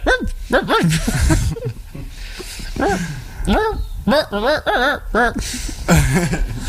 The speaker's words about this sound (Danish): Det er jo ikke engang hunde, det var bare sådan den der hundeindstilling på et standard keyboard.